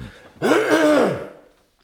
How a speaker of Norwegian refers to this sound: Vent, da. Jeg skal bare kremte. Jeg fucka stemme.